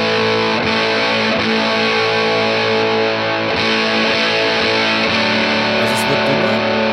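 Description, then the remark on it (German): A heavily distorted electric guitar, played with its humbucker pickup selected, plays sustained, dense chords with a thick, saturated tone and a few rhythmic attacks, loud and steady with no voices. “Wenn ich jetzt hier den Hamburger anhab.”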